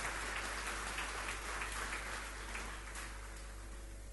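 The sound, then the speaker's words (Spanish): A crowd applauds God steadily, a dense wash of many hands clapping at once that holds at an even level before thinning slightly toward the end, with no voices over it. “¿Cuántos lo aplauden a Dios?”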